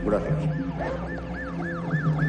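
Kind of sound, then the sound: vehicle, ambulance siren arriving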